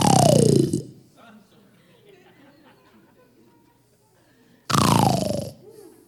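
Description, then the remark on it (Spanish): Two loud, raspy snoring imitations from a group of voices, each a roughly one-second burst sliding downward in pitch, separated by several seconds of quiet murmuring. “Y cuando estaban todos cansados, roncando, ¿cómo hacían?”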